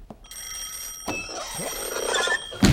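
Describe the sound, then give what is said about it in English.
An old-fashioned telephone bell rings steadily for a couple of seconds in a cluttered classroom, a bright metallic trill that grows a little louder toward the end, with no one speaking. “Once he took that phone call, I was like, wait a minute.”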